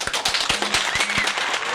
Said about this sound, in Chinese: 来，我们掌声欢迎她。